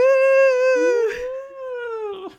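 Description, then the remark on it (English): A voice imitates a studio audience's cheering "woo," one loud, drawn-out hoot held for about two seconds, with a second voice briefly joining partway through. “Although I will say that, like, having grown up on sitcoms, as an adult, there really just aren't that many opportunities in my life where I get dressed up and I walk into a room and a live studio audience goes, woo!”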